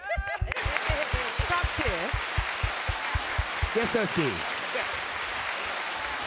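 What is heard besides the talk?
audience clapping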